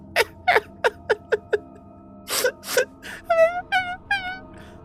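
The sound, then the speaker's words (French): A voice imitates a creature's whimpering as it tries to address someone: six short, quick yelps, a brief pause, then longer wavering cries that bend up and down in pitch, fairly loud, with no talking. “t'es pas capable du tout de comprendre ce que essaierait de te dire cette créature, mais visiblement, elle essaye de s'adresser à toi.”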